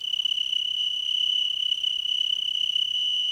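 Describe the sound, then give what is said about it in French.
A cricket holds its two transparent wings raised and vibrates them, singing a continuous, high, pure trill that holds perfectly steady for the whole stretch, clear over a quiet background with no voices. “Ce sont les plus mélodieux de tous les criquets.”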